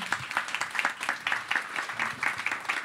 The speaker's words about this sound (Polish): Myślę, że się należą brawa.